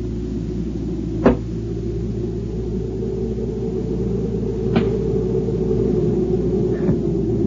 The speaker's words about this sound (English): I found out about the rifle shot, just an echo from the canyon if you throw a rock against the cabin. See, you can hear it when I throw.